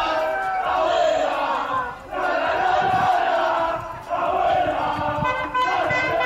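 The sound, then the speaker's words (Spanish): A group of young men loudly chant the 'abuela La La La La La' song together in unison on a street corner as a celebration, the sung phrases repeating in strong waves with brief dips between them. “ya es imposible pensar un festejo sin la famosa abuela La La La La La, que es la canción que un grupo de muchachos empezó a cantarle en una esquina.”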